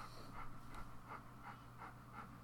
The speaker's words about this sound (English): Harley is just panting in the background. The dog